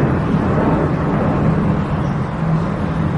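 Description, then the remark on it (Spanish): A loud, steady low rumble of aircraft passing overhead, a dense roar that holds at an even level for a few seconds with no voices. “pues para los ahora los aviones están con todo.”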